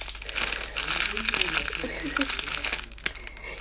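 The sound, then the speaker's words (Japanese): Continuous crinkling and crunching as biscuits are crushed into crumbs, a dense, uneven crackle with sharp bright bursts throughout, moderately loud and steady for a few seconds. “一旦止めようというわけでね、えー、ビスケットが粉粉粉々に砕けたので、えー、飛ばしバターをね加えて下地をね作っていきたいと思います”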